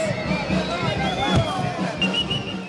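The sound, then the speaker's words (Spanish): A crowd of wedding guests shouts 'long live the newlyweds' and cheers together at a wedding to a lizard 'princess', a steady wash of overlapping raised voices lasting a few seconds with no pause, a brief louder burst rising out of the din partway through. “Y como en toda boda que se respete, los invitados gritaron que vivan los novios”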